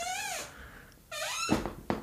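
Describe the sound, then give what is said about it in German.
An office chair squeaks twice in long, gliding whines, with a couple of soft knocks as it shifts, with no talking. “Guter Stuhl. Und damit meine ich jetzt einen, einen guten Bürostuhl.”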